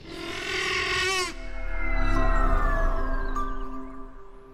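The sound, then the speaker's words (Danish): A deep, drawn-out dinosaur roar sound effect: a rasping bellow for over a second, then a long low rumbling growl that swells and slowly fades, with no voices. “fra fortidens dinobrøl på dinosletten”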